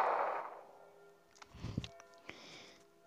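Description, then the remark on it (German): A video game lock mechanism unlatching and opening to let light in: a rushing whoosh fades into a cluster of mechanical clanks and a deep, heavy thud, followed by one more sharp click over a faint sustained tone. “Ähm, so eine geile Verriegelung geht auf, wir sehen Licht.”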